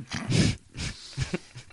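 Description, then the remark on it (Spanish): Peacock calls: several loud, harsh, wailing cries in quick succession, the first long and strained, followed by shorter yelping bursts, with no one talking. “Eh, vuelve el final de los pavos reales.”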